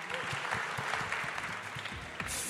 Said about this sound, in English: And as usual, thanks to our amazing, amazing media team for bringing all of this together. We couldn't do any of this without them. So let's have a big round of applause for all of those guys as well.